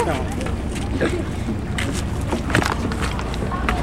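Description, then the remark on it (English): Strong wind buffets the microphone outdoors by a boat, a constant low roar with bumps and clatter of people climbing aboard and faint voices in the background. “Got us getting on the boat.”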